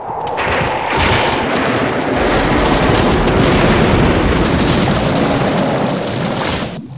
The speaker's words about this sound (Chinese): 忽然雷声大作，惊天动地。